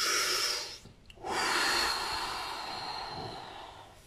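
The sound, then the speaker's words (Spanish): A voice imitates bellows blowing air onto a fire, with two long, forceful breathy blasts of air, the first cut off by a brief pause before a sustained second push that slowly fades. No words are spoken. “No, no, pues dijo que uno tiene que poner fuego y echarle aire. Mucho aire, con unos fuelles que tenemos así que uno lo hace. Se llena así.”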